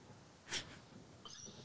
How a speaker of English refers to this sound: What's your cat? Oh, oh, it's my cat my cat's pissed because we were gone all weekend.